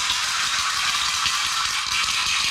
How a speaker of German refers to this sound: Ja, und dann gibt es dieses schöne Plastikteilchen, da sind so bunte Kugeln drin, das ist ein Würfelmechanismus ja. und äh, den äh, schüttelt man dann. Ja, ich mach mal vor, unglaublich innovativ.